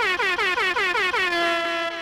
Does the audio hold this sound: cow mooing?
no